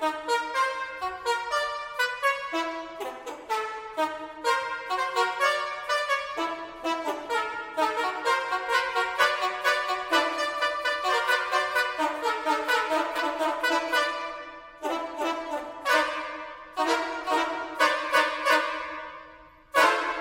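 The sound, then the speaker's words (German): Car horns honk out a tune from an opera composed for car horns, loud, overlapping blasts stacking into chords in a quick, steady rhythm, with a short pause before the melody resumes. No one speaks. “Diese Musik ist komponiert für und mit Autohupen.”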